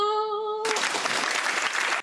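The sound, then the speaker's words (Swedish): A short sustained musical tone gives way to a loud, dense burst of applause, many hands clapping steadily for over a second before it cuts off abruptly, with no one talking. “Applådos uh, eh, to our um, success, höll jag på att säga.”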